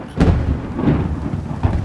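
A thunderstorm batters a cliff edge where a former lighthouse stands, heavy rain hissing steadily while deep thunder rumbles and swells in a few rolling bursts, fairly loud, with no voices.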